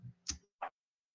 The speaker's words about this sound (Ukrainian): І тумблер знову, Ну, я можу натискати мишкою на цю віртуальну кнопку, але просто ні ні